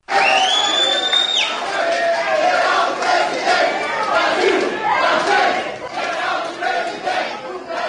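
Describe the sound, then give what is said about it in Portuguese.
A large crowd chants and shouts loudly at a political campaign reception at the airport in Brasília, the dense mass of voices continuous for the whole stretch, with a sharp whistle cutting through near the start. “Acho que foi uma manifestação quase que coercitiva.”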